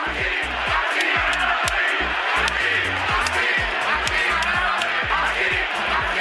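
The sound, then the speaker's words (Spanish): A huge football stadium crowd at Montilivi in Girona chants in unison, loud and continuous, with a rhythmic, repeating shout rising over the dense roar of thousands of voices. “pero nos vamos a escuchar este grito que sonaba en Montilivi.”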